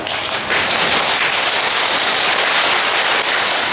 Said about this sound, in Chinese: 重要，拍拍手。